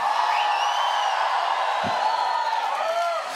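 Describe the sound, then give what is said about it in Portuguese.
A large crowd shouts and cheers together in a sustained, loud roar, with a few higher whoops rising above the mass of voices for a few seconds. “Gritai a Deus com voz de triunfo!”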